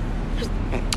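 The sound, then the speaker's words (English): A quick, sharp sneeze bursts out near the end, set against a steady rumble of vehicle noise with a faint voice in the background. “Oh, bless you,”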